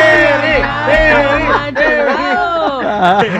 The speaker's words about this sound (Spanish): Hasta me aplaudieron.